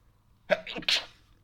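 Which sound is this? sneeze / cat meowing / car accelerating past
sneeze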